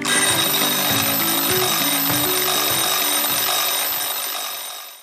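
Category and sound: signal or alarm, alarm clock ringing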